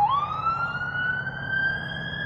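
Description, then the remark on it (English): An emergency vehicle siren outside a studio wails steadily, its tone sweeping upward and holding high over a low rumble of traffic, with no voices. “can hear uh, yeah, sirens coming from uh, outside of the uh, the studio here.”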